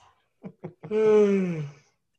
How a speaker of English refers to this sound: I'm yawning.